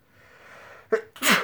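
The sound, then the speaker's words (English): A single loud sneeze: a sharp intake-like burst followed by an explosive, bright spray of noise, preceded by faint quiet background. “God bless. You.”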